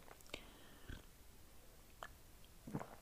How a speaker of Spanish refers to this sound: un sorbito de café.